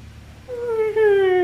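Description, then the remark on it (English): A droning, whining aircraft sound effect rises in over a low murmur and holds a loud, steady, slightly climbing pitch, like an old wartime plane passing overhead. “That sounds like it sounds as if it's like something from the Blitz, mate.”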